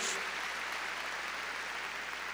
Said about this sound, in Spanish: A ver, démosle palmas fuertes, hermano, a nuestro Señor. Gloria a Dios.